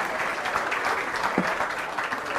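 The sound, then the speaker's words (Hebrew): An audience applauds Prof. Rafi Malach, a dense, even wash of many hands clapping at a fairly loud, constant level throughout, with no voices standing out. “אז עכשיו אם כבר מחאנו כפיים, אז בואו נמחא כפיים מכל הלב לפרופ' רפי מלאך.”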